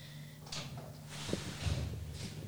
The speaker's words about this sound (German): es kommt Alex. nämlich gerade unser Hausmeister zur Tür herein